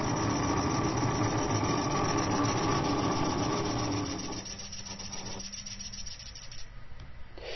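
A vibrating liquid level indicator buzzes steadily as a cup is poured to full, a rough mechanical vibration that drops in intensity about halfway through and continues more quietly to the end.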